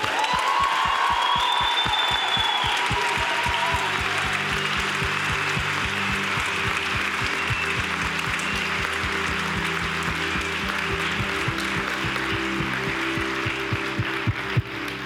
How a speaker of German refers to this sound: Come on, können wir dem Team noch mal einen richtig großen Applaus geben? Ey?